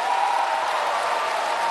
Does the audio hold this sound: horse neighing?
no